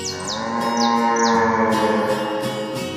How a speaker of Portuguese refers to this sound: Ele mugiu bem alto.